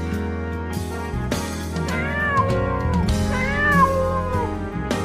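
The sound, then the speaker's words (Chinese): A black kitten meows twice in a row toward the inside of a house, each call long, high-pitched and wavering, rising then falling, heard over a steady, sustained musical background with no one talking. “黑小猫朝着屋内叫了起来，想让女孩听见它的声音。”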